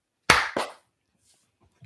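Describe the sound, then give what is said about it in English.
Two sharp, loud hand claps made to mark sync at the start of filming a video land a fraction of a second apart, each with a brief ringing decay, followed by near silence and a faint low thump at the very end. “So once we clap, um, then we we will change to different clothes, like uh like we're magician.”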